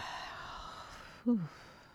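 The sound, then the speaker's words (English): A person yawns once. The yawn ends in a short voiced exhale that slides downward in pitch, following a stretch of faint background hiss. “And there's another thing we can do, which is simply yawning.”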